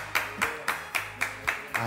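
A single person claps hands in a steady, even rhythm, about seven sharp claps in two seconds, fairly close and moderately loud, with a faint low hum underneath and no talking.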